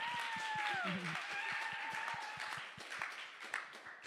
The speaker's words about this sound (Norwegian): Nei, Vi har jo blitt gift. Ja, ja, det, det er verdt en applaus.